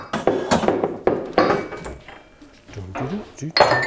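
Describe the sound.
Glasses and dishes being handled as the upper shelf of a kitchen cabinet is cleared out: a quick series of sharp clinks and knocks, bunched in bursts with short pauses, and a brief low murmur of voice near the end.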